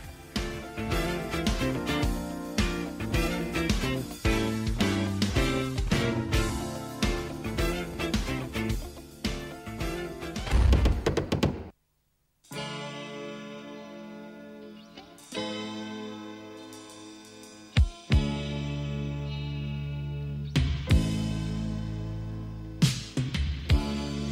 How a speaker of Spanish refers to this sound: Y pues bueno, vamos a escuchar esta canción.